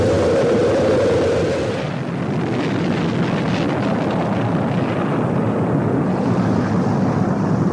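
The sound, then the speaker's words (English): A loud, sustained roar of rocket engines at liftoff after main engine start, heard in MTV's launch broadcast: a dense rumbling wall of noise that stays steady and powerful throughout, with no voices. “We've gone for main engine start. We have main engine start.”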